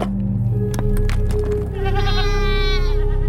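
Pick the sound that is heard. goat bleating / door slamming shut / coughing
goat bleating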